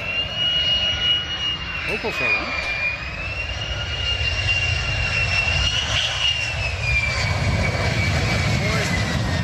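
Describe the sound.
Two F-35 fighter jets landing at Leeuwarden in the Netherlands: a loud jet roar with a steady high-pitched whine that drones on without letup, while a person briefly speaks over it.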